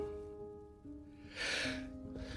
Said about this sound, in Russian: Будьте здоровы